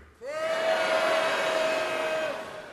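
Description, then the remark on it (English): A large crowd calls out their names all at once, each voice stretched long, blending into a loud, sustained droning chorus that starts together abruptly and fades after a couple of seconds. “Now, on a count of three, I want you to tell me your name, and I want you to hold it out.”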